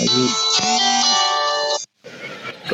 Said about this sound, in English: Sorry, do you hear me now? Yeah, yeah. yeah yeah because i, I got a call